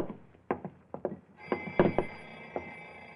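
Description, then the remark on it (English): A muffled alarm clock bell, inside a suitcase under the floor, starts ringing partway through and keeps going steadily, sounding faint and enclosed, while a few dull knocks and thumps land over it. “Uh, my alarm clock in the bedroom.”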